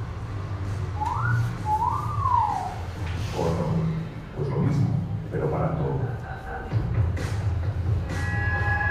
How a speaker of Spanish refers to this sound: Esto que tanto llama la atención y que suena arcaico, en realidad ya es usado habitualmente como forma de comunicación universal, porque sin ser un idioma, casi todos sabemos reconocer el significado de algunos silbidos.